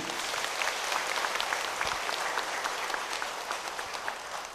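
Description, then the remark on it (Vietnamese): A sustained burst of applause from an audience of about 400 people at a tribute ceremony for organ and body donors: dense overlapping claps at a steady, fairly loud level for several seconds with no one speaking. “hãy tất cả dân cao tràn vỗ tay thật lớn để tán dương”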